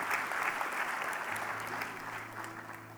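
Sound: audience applauding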